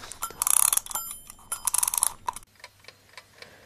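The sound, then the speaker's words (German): A wind-up alarm clock's bell rattles in rapid, bright metallic bursts for about two seconds, then stops, leaving a steady soft ticking. “ähm, ich habe so lange den Wecker nicht aufgezogen.”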